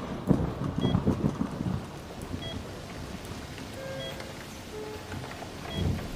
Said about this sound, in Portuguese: A chuva é linda, né? Ainda mais quando não tem muito que se olhar.